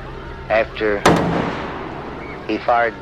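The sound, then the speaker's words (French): A single loud rifle shot, the last of three fired by a man from a window, cracks out and rings off with a short echoing tail, while a voice speaks briefly just before and after it. “Après avoir tiré le dernier ou troisième coup, il ne semblait pas pressé, pressé.”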